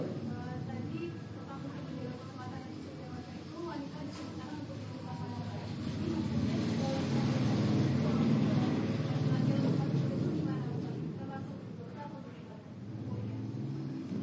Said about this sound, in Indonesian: Jadi coba diulang sebentar. Ini tadi ada motor yang lewat.